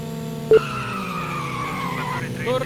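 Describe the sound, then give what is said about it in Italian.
Engines whine steadily with rising and falling pitch as cars race past in a racing video game with traffic on the track, the player in third position; a short sharp blip early on and tire squeal sweeping upward near the end. “C'è un po' di traffico come state notando. Sei in terza posizione.”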